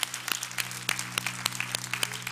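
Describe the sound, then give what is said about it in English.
A church audience applauds steadily, the dense patter of many hands broken by sharper, louder individual claps at irregular moments, with a low steady hum beneath and no voices. “Can we just give God a praise for what he's doing today?”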